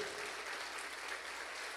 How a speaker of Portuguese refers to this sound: E eu gostaria que você aplaudisse a Jesus pela vida do pastor Daniel. Aplauda Jesus.